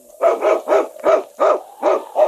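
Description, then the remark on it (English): A sled dog, Yukon King, the lead dog of the Northwest, barks in a quick, steady string of about seven loud barks, each one short and full, with no talking around them. “It's Yukon King, swiftest and strongest lead dog of the Northwest, blazing the trail for Sergeant Preston of the Northwest Mounted Police in his relentless pursuit of lawbreakers.”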